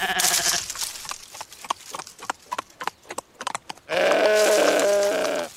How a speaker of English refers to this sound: What is the deal with that goat? It's the same one as before, right?